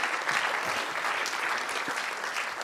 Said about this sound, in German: Danke vielmals. Geben wir dir doch noch mal einen Applaus Merci.